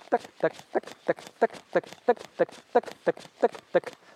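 Quick, steady footfalls of someone running in place as an exercise, about a dozen evenly spaced thuds at a brisk rhythm, fairly loud, with no talking.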